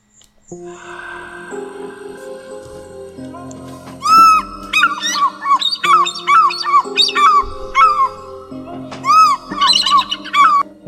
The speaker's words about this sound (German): Ist das ein schönes Intro? Ja, hör mal, ich habe es gefühlt.